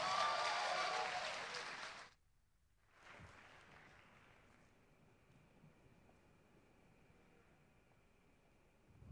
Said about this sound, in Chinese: 下面请欣赏作品《周恩来》，表演者郑伟，掌声有请。